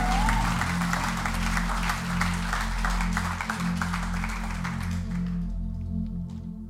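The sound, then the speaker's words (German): An audience applauds God after a prayer, loudly and steadily, a dense wash of clapping over a sustained low musical tone, with the clapping thinning out toward the end as the music continues. “Lass uns Gott noch einen riesen Applaus geben und vielen Dank,”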